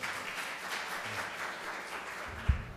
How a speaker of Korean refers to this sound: 자, 여러분 그동안 10년 동안 애 많이 쓰셨습니다. 이일 하시느라고 우리 서로 수고했다고 박수 한번 쳐주시겠습니다. 서로.